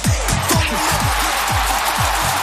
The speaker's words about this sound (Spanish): Ahí está la ovación.